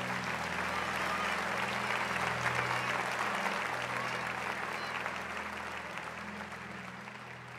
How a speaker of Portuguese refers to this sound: Amém, gente. Salva de palmas ao nosso Deus.